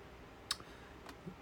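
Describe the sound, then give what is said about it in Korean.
A wooden-wick candle crackles softly, giving two or three sharp little pops spaced irregularly against a quiet, hushed background, with no one speaking. “이거 타닥타닥 나는 소리가 좋아가지고 산 건데 우드 우드 우액 우드 우액이라는 캔들입니다.”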